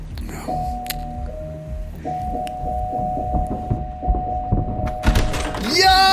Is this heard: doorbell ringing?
yes